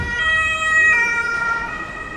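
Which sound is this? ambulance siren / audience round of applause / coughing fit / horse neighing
ambulance siren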